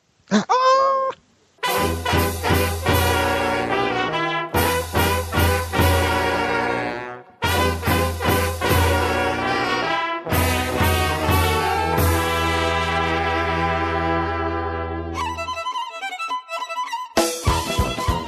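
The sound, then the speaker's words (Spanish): A loud, punchy instrumental intro jingle for a program's library section, with a steady driving beat and full sustained chords, broken by a couple of brief stops, ending in a sparser tail. No one speaks. “¿Tiene intro musical la biblioteca?”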